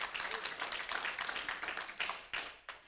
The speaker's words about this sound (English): Come on, clap your hands and give him some praise.